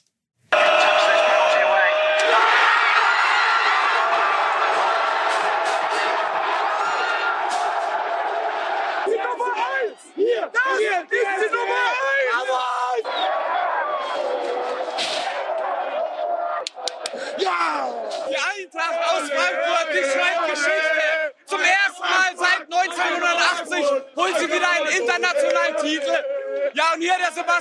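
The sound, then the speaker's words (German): A large crowd of football fans in Seville chants and cheers loudly and continuously, a dense roar of many voices with rhythmic shouted chants and occasional claps or slaps breaking through. “der war unterwegs in Sevilla und hat einfach eine wunderbare Stimmung erlebt.”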